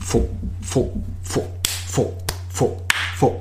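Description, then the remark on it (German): A voice mimics drum beats with a breathy, percussive syllable repeated about six times in a steady rhythm, with a few sharp clicks falling between the beats. “Das, ist, das klingt so ein bisschen, wie wenn ich, wenn ich so eine Trommel vor mir habe.”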